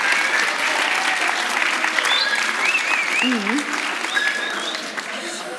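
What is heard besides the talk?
applause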